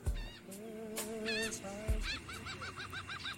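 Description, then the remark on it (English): Seagull cries: a few drawn-out squawks, then a fast, rhythmic run of about eight short laughing calls, loud over a thumping beat in a dance music track. “Because …'s gotta have seagulls in here at some point.”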